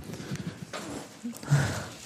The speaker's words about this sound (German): Ich muss mir mal die Nase putzen. Hat mal jemand ein Taschentuch?